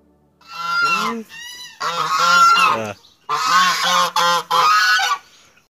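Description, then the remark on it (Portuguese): Harsh, honking saxophone squawks from a beginner, blaring loud in a few long, wavering bursts with brief gaps between them, sounding much like a goose's honk. “Aquele ganso me acompanhou a semana inteira, né?”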